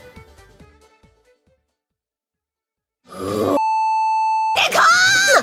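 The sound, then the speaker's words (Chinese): A loud, steady censor bleep lasting about a second masks an unmentionable word in the audio, cutting in right after a voice starts, with the voice resuming once the high tone ends; faint talking comes earlier, followed by a pause. “所以说之后的这段音频呢，我有做一些相关的加工、消音什么的。那具体呢是出现了哪一个不可描述的词，请各位绅士们猜猜看。”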